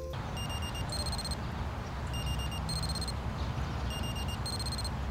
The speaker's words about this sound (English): But I think the weirdest feature is this little speaker icon here. Once you press it, your device will emit a sound to help you find it.